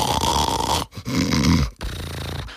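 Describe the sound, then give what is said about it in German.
A voice imitates the speaker's father snoring loudly: three rough, rasping snores in quick succession, loud, each separated by a brief pause, with no talking. “So, und alle haben geschnarcht.”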